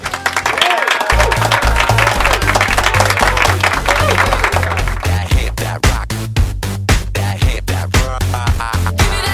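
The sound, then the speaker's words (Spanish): Loud, sustained applause, a dense crackle of many hands clapping throughout, over a steady low rhythmic beat, the clapping turning more distinct and pulsing toward the end. “Y esta noticia merece un fuerte, fuertísimo aplauso.”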